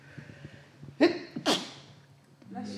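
A single sharp sneeze with a quick inhaled buildup and a bright explosive burst, followed by a short breathy exhale and faint background murmur.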